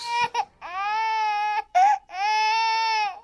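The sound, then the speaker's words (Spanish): A baby cries in two long, sustained wails, each preceded by a short, sharp gasp for breath. The crying is fairly loud, with no talking. “¿Usted logró enamorarse de este ruido, Max?”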